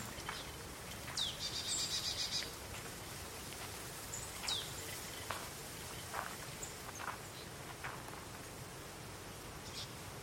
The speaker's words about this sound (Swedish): Du hör nu steg komma över grusgången och hör klirret av is som skvimpar fram och tillbaka.